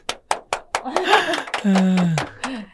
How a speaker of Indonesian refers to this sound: Ayo tepuk tangan dulu Mbak Mbak.